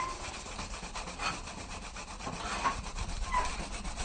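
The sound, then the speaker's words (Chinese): Steady, rhythmic rubbing strokes of scouring rush, a Chinese medicinal herb used in place of sandpaper, polishing a black paper fan; a dry, scratchy abrasive sound repeating evenly for several seconds with no one talking. Polishing one fan this way takes about half an hour. “哎，这一个扇子，那个这样磨的话，一个扇子可能要花到半个小时。”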